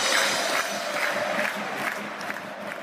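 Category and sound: crowd, football fans cheering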